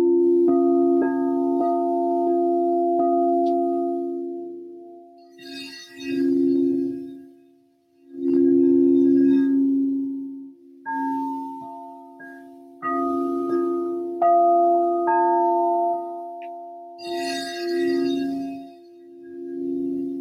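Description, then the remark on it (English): Crystal singing bowl tones: sustained, pure ringing pitches that overlap and hum steadily for twenty seconds, with soft shimmering swells every few seconds and no voices. “No sound baths while driving.”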